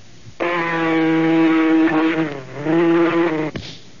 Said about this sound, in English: Gotcha. Now that you got rid of the mosquito. Darn mosquito really bit me.